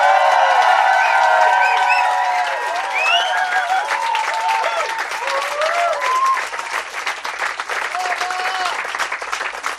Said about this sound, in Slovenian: Zamujate uh, neverjetno atmosfero v novomeškem lokalu Patriotu, kjer smo na 30 km strpali 50 tisoč ljudi, ki bodo še enkrat zaplaskali samo za vas.